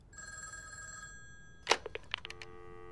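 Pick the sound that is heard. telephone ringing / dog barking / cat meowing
telephone ringing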